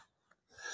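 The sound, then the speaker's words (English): A single short sneeze bursts out near the end after a near-silent moment, a breathy, hissing blast of moderate loudness with no talking around it. “Bless you.”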